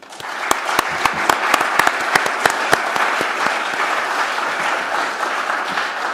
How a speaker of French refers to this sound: Je ne sais pas si vous applaudirez à la fin du colloque, mais je vous demande de les applaudir maintenant pour qu'on ne les oublie pas.